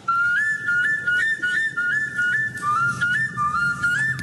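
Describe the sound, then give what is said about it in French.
A bone flute made from a vulture's ulna plays a breathy, high melody of short stepping notes, steady, over a faint low rumble, with no one speaking. “Le mot, la flûte, oui, c'est bien une flûte, une flûte euh, plutôt classique, euh, vous savez, un flutio si vous voulez.”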